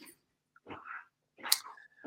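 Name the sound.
dog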